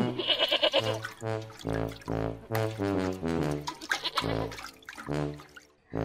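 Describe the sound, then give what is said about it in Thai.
Several goats and sheep kept by a farmer for milking bleat in quick succession, their wavering, nasal cries overlapping with brief gaps between calls, fairly loud throughout and with no talking. “ชาวไร่ได้เลี้ยงแพะและแกะไว้เพื่อเตรียมรีดนม”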